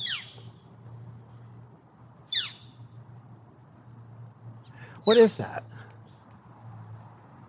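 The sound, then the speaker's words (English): A bird gives two sharp, descending calls a couple of seconds apart over a low, steady outdoor hum, and a person briefly speaks near the end. “That sound? Yeah. That's a bird.”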